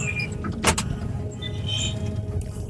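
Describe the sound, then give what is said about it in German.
The doors of a Ferris wheel gondola swing open at the bottom of the wheel with a single sharp metallic clack, over a steady low mechanical rumble and faint rattling. “Die Türen der Gondel gehen auf.”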